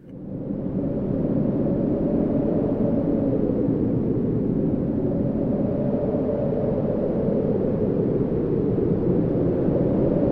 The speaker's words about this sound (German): Ja, okay. Also da würde ich sagen, ist halt richtig Hackengas. Ja, ist wahrscheinlich ein Orkan, oder? Ja, nee, Orkan würde ich noch nicht sagen. Okay, das ist eher so eine 10. Windstärke 10, ja. würde ich sagen.